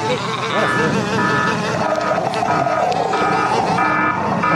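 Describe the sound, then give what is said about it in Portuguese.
A loud truck sound effect: a dense, steady engine rumble with repeated high electronic beeps pulsing over it. It runs continuously for a few seconds, full. “Solta o caminhão aí”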